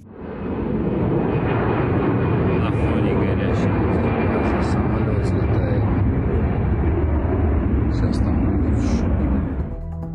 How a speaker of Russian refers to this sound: Известно, что взрыв произошел вблизи международного аэропорта Сочи, однако его работу не приостанавливали. В сети появились кадры, как пассажирские самолеты взлетают на фоне столба черного дыма, который был виден за десятки километров.